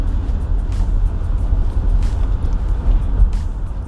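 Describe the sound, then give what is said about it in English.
A steady, deep rumble of a van being driven along a road to be dropped off, heard from inside the cabin, continuous and fairly loud with faint ticks and hiss riding over the engine and tire noise. “So when I drop this van off, I'll catch the bus to the metro trail and head on home.”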